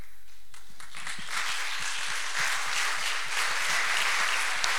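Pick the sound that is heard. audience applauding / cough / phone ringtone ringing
audience applauding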